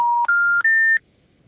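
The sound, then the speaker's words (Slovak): Three clear electronic telephone dialing tones in quick succession, each a steady beep stepping slightly higher in pitch, as a woman calls her husband, followed by quiet. “žena, žena volá mužovi”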